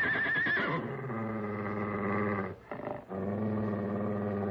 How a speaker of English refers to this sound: The stallion. He's coming in for the kill.